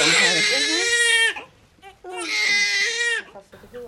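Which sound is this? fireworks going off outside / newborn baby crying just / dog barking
newborn baby crying just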